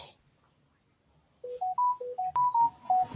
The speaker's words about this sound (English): Oh, that's my phone.